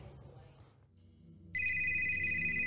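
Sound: telephone ringing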